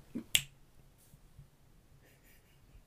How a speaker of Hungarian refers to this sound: Megadta a, másik... a jelet. Megadta a jelet, csettintek.